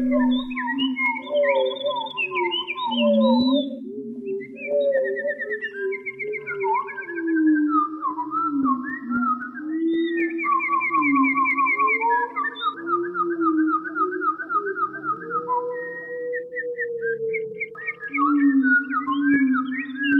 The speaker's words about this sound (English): We leave you this week with sonic variations on a bird song. Bernard Fort recorded a lone wood thrush in the Canadian woods near Quebec and employed some studio wizardry to create this composition he calls Etude sous la pluie.